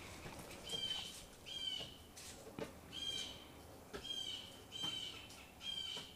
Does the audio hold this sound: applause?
no